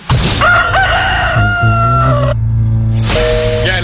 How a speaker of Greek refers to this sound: Έρωτα είναι εδώ στο καφέ Morning Show και τώρα θα λαλήσει το κοκόρι τη στο καφέ Morning Show.